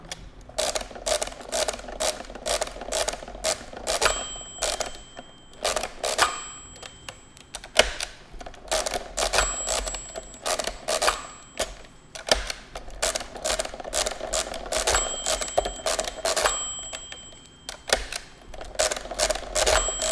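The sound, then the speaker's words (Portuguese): A mechanical calculator being cranked over and over, a steady run of dense, rattling clicks and ratchet-like clatter, with the carriage shifting along in between. No one speaks. “acerca da máquina de calcular mecânica”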